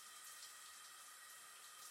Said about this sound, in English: Maybe he couldn't hear me over the shower, I hoped. No answer again. This time he cut off the shower.